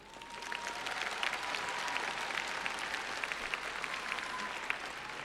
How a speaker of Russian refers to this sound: И пусть эти аплодисменты сегодня звучат в два раза громче